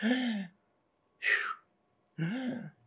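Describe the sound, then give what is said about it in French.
A person imitates a baby's sharp, gasping thoracic inhalations: three short, breathy bursts with brief silences between them, the first and last voiced and the middle one a noisier hiss of air. “le bébé va dans un premier temps soutenir ses redressements par un appui sur une respiration thoracique, ce qu'on appelle le tonus pneumatique.”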